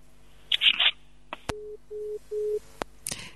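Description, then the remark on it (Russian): A phone disconnect tone after a dropped call: three short, steady mid-pitched beeps in an even rhythm, framed by sharp line clicks and preceded by a brief burst of hissy noise. No one speaks. “Перезвоните, пожалуйста, сорвался ваш звонок.”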